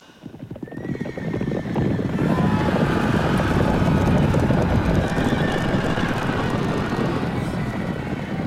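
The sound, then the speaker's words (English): Horses whinny and neigh over clattering hooves amid a loud, dense, roaring din of fire and shouting, building quickly in the first two seconds and staying chaotic throughout, from a performance art piece welcoming a group of judges to the small town of Ruatoki on New Zealand's North Island in 2005. “These chaotic sounds horses, fires, and shouting are from a performance art piece welcoming a group of judges to the small town of Ruatoki on New Zealand's North Island back in 2005.”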